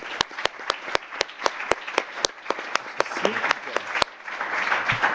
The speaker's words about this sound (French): Je souhaite vous remercier et vous pouvez vous applaudir, vous tous.